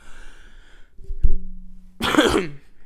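Someone coughs: a brief, sharp catch followed by a louder, rough burst of coughing that trails off. No speech is heard.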